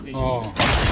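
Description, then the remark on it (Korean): A grandfather clock is lifted, carried outside and smashed onto the floor in one blow: a loud crash of something heavy shattering, with a burst of breaking and scattering clock parts and wood pieces after a brief tonal, mechanical ringing lead-in. “어머니는 급한 마음에 괴종 시계를 번쩍 들어서 밖으로 나가서 단번에 바닥에 내리쳐”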